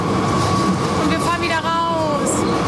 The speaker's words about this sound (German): Wir fahren zum ersten Mal in der Brüsseler Straßenbahn. Richtung es Erasmus. Ist, es ist im Prinzip eine graue Metallkiste